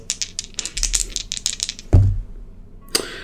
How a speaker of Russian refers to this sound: Ну, давай, предположим, кидай кубики на атаку. Попал, не попал.